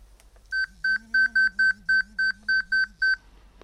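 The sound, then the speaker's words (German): A rapid series of about ten short, high electronic beeps in an even rhythm, clear, with a faint low hum beneath them and no talking: an alert from an InnoMake Clip obstacle-detection wearable. “das war jetzt eine Meldung vom InnoMake Clip.”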